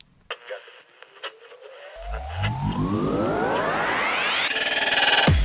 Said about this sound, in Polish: To są zakłócenia. Nie reguluj odbiornika.